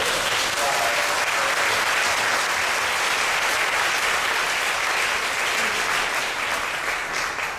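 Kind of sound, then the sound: crowd, audience applause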